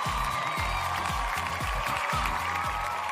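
A crowd applauds steadily for about three seconds, a dense, even wash of clapping with scattered cheers, while low, regular thumps pulse underneath at roughly a beat every half second.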